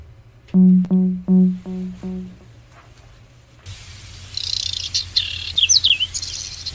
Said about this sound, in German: Falls ihr euch jetzt fragt, welcher Vogel euch da gerade ins Ohr singt, das ist das Braunkehlchen. Und seit gestern hat das Braunkehlchen sogar eine besondere Auszeichnung. Es ist nämlich vom NABU zum Vogel des Jahres gekürt worden.